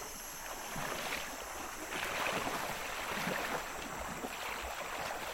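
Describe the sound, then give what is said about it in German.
Continuous water sloshing and swirling as someone wades through chest-deep river water past a rock wall, with surges of splashing every second or so over a steady rushing flow. No voices. “Auf dem Rückweg warten wir durch den Magot, vorbei an der Felswand, an der ich vorher alleine nicht mehr weiterkam.”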